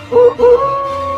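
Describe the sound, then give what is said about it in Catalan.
A wolf howls loudly: two quick wavering cries that swell and break, then one long, steady howl that holds to the end, with no voices or other sounds around it. “va fugir amb uns terribles odols que se sentiren per tot el bosc.”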